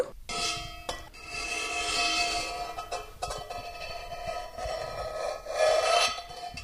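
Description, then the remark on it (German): A steady rasping, scraping cut runs straight through something solid toward the person cutting, done slowly and with care, a continuous gritty rub with brief pauses and a slightly louder stretch near the end. No one speaks. “Und jetzt schneidest du einfach mal gerade, so dass man es auch hört, dass du schneidest, äh, gerade zu dir.”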